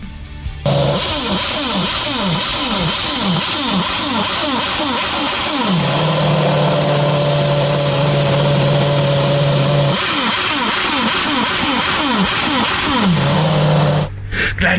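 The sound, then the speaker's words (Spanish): The engine of the Red Bull RB7 Formula 1 race car running while parked, loud and alone: rapid bursts of sharp throttle blips rising and falling in pitch, broken by stretches of steady, buzzing idle. “Checo Pérez, escuchamos un poco cómo suena estacionado este RB7.”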